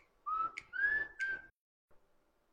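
A phone alarm rings in three bright, rising whistle-like tones in quick succession, then cuts off abruptly, leaving near silence with a faint brief sound after.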